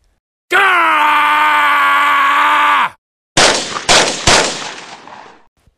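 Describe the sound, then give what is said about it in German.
In a video game shootout with police, a character gives a long, loud, strained scream that holds steady for over two seconds, then cuts off. A short pause follows, and a few sharp, booming gunshots ring out and fade away. “Nun kommen auch noch von rechts und links Fahrzeuge und Lester wird in die Brust geschossen.”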